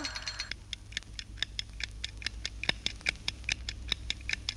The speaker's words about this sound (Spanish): Eh, oh, mannaggia sta sveglietta che non mi va mai dormire.